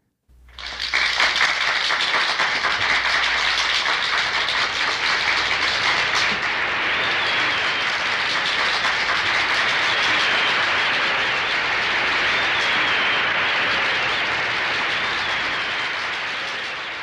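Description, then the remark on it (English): A large audience applauding on a record: about one minute of dense, steady clapping that closes side one of an album, starting abruptly and holding at full strength before easing slightly at the end, with no voices heard. “Roughly one minute of applause closes out side one.”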